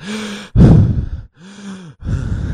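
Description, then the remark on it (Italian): A voice imitates tired, heavy breathing, like an actor dubbing the breaths of an exhausted child who never speaks: a few loud, drawn-out breaths alternating in and out, breathy and strained, with no words. “In pratica, questo bambino qua non parla mai, però respira. E in pratica, respirando, cioè, si capisce quanto è stanco.”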